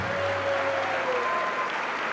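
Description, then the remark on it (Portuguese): An audience applauding God during a church service, a dense, steady wash of many hands clapping that holds evenly throughout, with a faint tonal hum running underneath. “Mas eu quero que você dê mais uma salva de palmas para aquele que te formou.”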